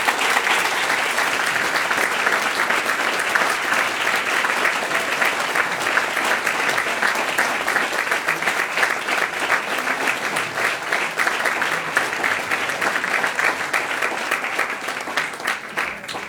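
Sustained audience applause, a dense steady patter of many hands clapping at an even loudness for the whole stretch, easing slightly at the very end.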